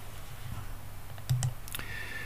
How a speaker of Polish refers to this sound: I teraz sobie tutaj, szanowni państwo, kliknę. Pozwólcie, że to zrobię tutaj poza waszym widokiem.